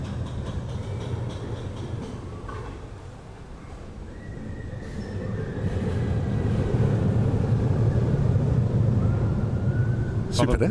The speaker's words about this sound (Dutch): ik ga eventjes wat stil zijn en gewoon eens genieten van dit geluid. we staan hier in de Efteling vlakbij de bobslee. En, en dit geluid is hier al zo lang als ik me kan herinneren. Luister eens mee.